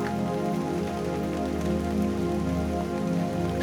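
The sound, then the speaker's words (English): Steady rain pattering on a surface, a dense, continuous wash of droplets at an even, moderate loudness with no voices, unbroken throughout. “Get Sleepy To The Sound Of Rain”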